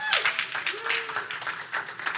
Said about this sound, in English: So, we are in week three of our series on the story of Gideon. If you've enjoyed it, can I get a round of applause on that?